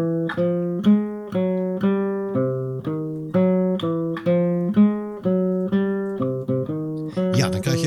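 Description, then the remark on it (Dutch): A guitar plays a steady walking bass line, plucked single notes stepping evenly in a low register with a relaxed swing pulse, clear with no talking. “Ehm, is een, een, walking bass. Ehm, en misschien wel even handig ik de gitaar er eens even bijpak. Moet je hem eens even luisteren.”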